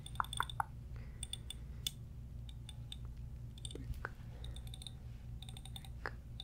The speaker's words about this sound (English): So I have this comb, and I'm just going to prick your head a little bit, just a little. Does that feel soft or hard? Okay, definitely hard. Just prick you a little.